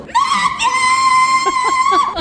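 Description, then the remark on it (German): At a screaming contest, a woman lets out a long, piercing scream to call her husband, held at a steady high pitch for about two seconds, loud, like a drawn-out call. “Ja, diese Frauen äh, schreien um ihr Leben quasi, um ihren Ehemann zu rufen und können dann eben den besten Platz gewinnen.”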